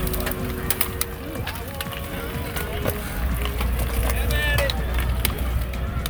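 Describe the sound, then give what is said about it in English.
Dozens of sharp metallic clicks from hundreds of cyclists clipping into bike pedals in Iowa, scattered irregularly over a busy outdoor background of crowd murmur and a low rumble. “That's the sound of a hundred people clipping it.”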